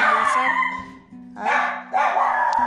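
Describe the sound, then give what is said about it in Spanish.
A dog, Blackie, barks loudly and repeatedly in energetic bursts, with a steady low hum underneath and brief gaps between the bark clusters. “Disculpen ustedes porque la criatura se puso a ladrar como loquito, ¿verdad, Blackie?”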